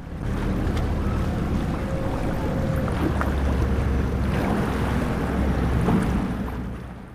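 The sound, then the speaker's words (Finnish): Steady rumbling engine noise of water buses and motorboats on a canal in Venice in mid-October, loud and continuous, with churning water, occasional rolling suitcases and faint ambient clatter throughout, no speech. “Vesibussien ja moottoriveneiden meteliin sekoittuu tuon tuosta matkalaukkujen rullaus.”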